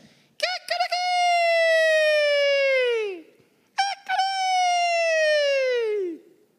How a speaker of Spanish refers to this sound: El Señor le dijo, antes que cante el gallo, ya tres veces me vas a negar. En otras palabras, antes de que amanezca, y que el gallo anuncie que es hora de despertar, ya me habrás negado tres veces.